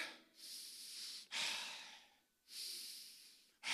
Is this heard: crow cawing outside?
no